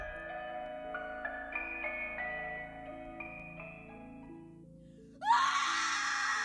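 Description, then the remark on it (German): Slow, eerie stepping tones play for several seconds, then a sudden loud, shrill, desperate scream rings out through the darkness and holds harshly until the end. “Der Schrei gellte durch die Dunkelheit, laut, schrill und voller Verzweiflung.”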